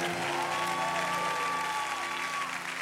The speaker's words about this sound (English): Will you give him one more clap of praise?